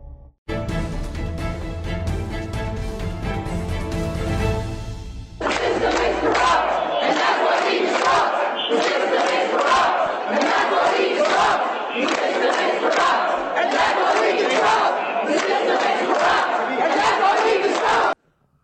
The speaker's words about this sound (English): They're saying, if you couldn't hear them, the system is corrupt. And that's why we disrupt. That was a scene from the United States Senate today where professional protesters were coming to jam the gears of democracy.